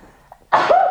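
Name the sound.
sneeze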